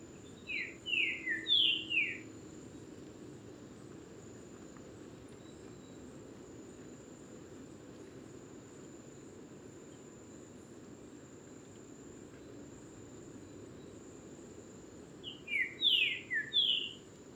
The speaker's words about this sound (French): le Saltator à bec.